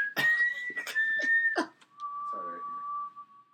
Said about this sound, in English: Anyway, did you yeah. really whistle Hunger Games right now? yeah.